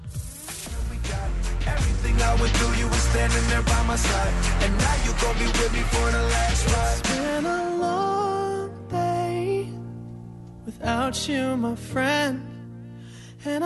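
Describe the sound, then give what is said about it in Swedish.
A chart-topping pop song from the Fast and Furious film soundtrack, number one in the USA, plays on its own, loud and full with a steady beat at first, then thinning to sustained piano-like chords under a smooth, expressive sung melody. “Man hör den, den är en del av soundtracket till Fast and Furious.”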